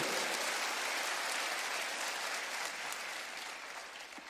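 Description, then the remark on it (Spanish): An audience applauds the Lord loudly and steadily, a dense wash of many hands clapping that holds for several seconds before easing slightly toward the end. “Dele ese aplauso al Señor fuerte.”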